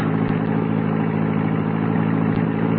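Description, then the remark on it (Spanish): A car engine runs loud, a steady low rumbling drone with a gritty mechanical edge and a couple of faint clicks, holding level throughout with no voices, as the driver floors the accelerator so the car leaps away. “Cuando os crean que usted se va parando, cuando estén más descuidados, le apriete usted y mete todo el acelerador, de modo que el auto se arranque de un salto y no nos puedan detener.”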